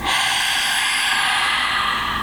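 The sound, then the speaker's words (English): A loud breath rushes steadily and noisily for a couple of seconds, a harsh airy hiss with no talking. “With your deep arm breathing”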